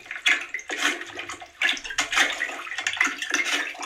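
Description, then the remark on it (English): A toilet being plunged and flushed, with a series of loud, sloshing water bursts in an uneven rhythm, roughly half a second apart, each followed by gurgling splashes. No one speaks. “Yeah, that sounds like he's sort of doing some plunging action.”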